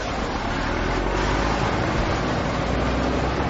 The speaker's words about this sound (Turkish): Aman Allah! Duyuyor musunuz? Bu traktör sesi değil mi? Evet, evet traktör sesi.